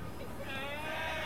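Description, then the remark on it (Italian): An audience joins in a loud, sustained buzzing drone that imitates a vuvuzela horn to censor a swear word at the end of a blues verse, swelling after a brief start and holding steady without a break for over a second. “ad ogni giro, a fine giro, io starò per dire una parolaccia e voi pubblico dovete censurare questa parolaccia col suono della vuvuzela, ridando dignità alla vuvuzela.”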